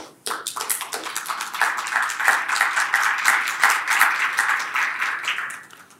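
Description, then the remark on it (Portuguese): A church crowd breaks into steady applause, many hands clapping densely and fairly loudly for several seconds before it starts to thin out at the end. “A gente está se liberando para as palmas”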